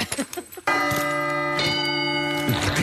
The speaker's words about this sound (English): These are all the bells we have.